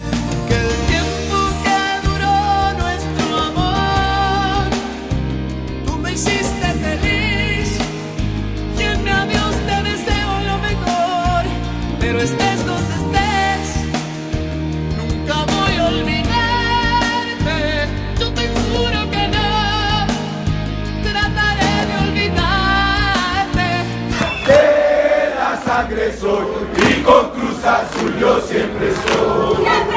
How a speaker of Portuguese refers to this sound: e a torcida do Cruz Azul, por que não, cantando De La Sangre Soy, em, uh, em função da torcida organizada que se chama La Sangre Azul.